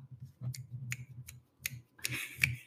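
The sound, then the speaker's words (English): A handful of sharp jazz finger snaps, given as a round of applause, spaced about a third of a second apart, then a quicker cluster of snaps at the end, all over a low steady hum. “jazz snapped.”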